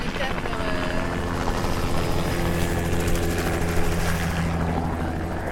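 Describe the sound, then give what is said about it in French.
A helicopter giving first-flight tour rides flies by, its rotor producing a steady, loud thudding drone with a low engine hum that persists throughout, with people talking faintly underneath. “Alors c'est quoi cet hélicoptère, vous savez Bah c'est des baptêmes...”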